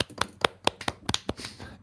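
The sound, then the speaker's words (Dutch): A brief round of applause: roughly eight or nine sharp, crisp claps in a slightly uneven rhythm, sounding like just one or two people clapping, with no talking. “Dus ja, applaus voor deze gang van zaken, denk ik.”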